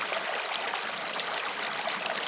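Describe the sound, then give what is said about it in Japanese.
A river stream flows steadily, a continuous bright wash of running water with a soft babbling texture, even in level, with no voices. “軽く目を閉じて気持ちよく晴れた空流れる川心地よい風をイメージしてみてください静かに川が流れ音を立てているのが聞こえてきます”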